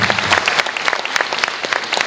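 An audience at a conference claps steadily, a dense patter of many hands with sharp bright accents throughout, fairly loud and sustained with no one speaking.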